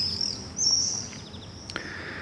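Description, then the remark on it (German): Shrill, high-pitched screams of common swifts, drawn-out and thin, coming in a few overlapping bursts over a quiet outdoor background, with no talking; the swifts fly in flocks between the houses and over the rooftops of the Südstadt district. “Man kann sie auch jetzt im Hintergrund immer wieder hören mit ihrem charakteristischen lauten Schreien.”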